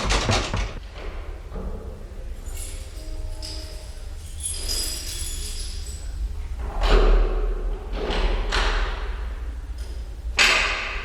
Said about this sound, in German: Er zog Werkzeug aus der Tasche seiner schwarzen Lederjacke und machte sich am Schloss zu schaffen.